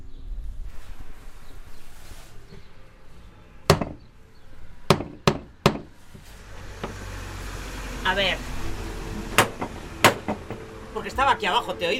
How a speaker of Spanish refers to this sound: Ya, pero hace más ilusión darle a la aldaba. Tengo que estar aquí en la puerta. Ya, pero como estoy grabando, ya, pues ah. para coger el sonido de la aldaba, digo, a ver si le voy a dar muy fuerte y se me satura.